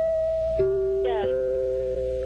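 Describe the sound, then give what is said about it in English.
A short sequence of the old station identification chimes of radio station WSB in Atlanta, Georgia, an NBC affiliate: a few clear, sustained bell-like tones stepping between pitches, each ringing on and overlapping the next at moderate loudness, with no talking. “The old uh, chimes.”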